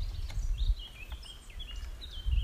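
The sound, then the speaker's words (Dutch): Small birds chirp and tweet in quick, high bursts throughout in the vegetable garden of Leiduin in Vogelenzang, over a low outdoor rumble of wind or traffic. No one speaks. “En zo sereen. Vogeltjes kruiden.”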